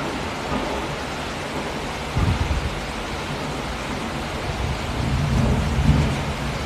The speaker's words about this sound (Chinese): 它跟我在上海感受到的雨完全不同，就是它还一边打雷一边下雨，声势浩大。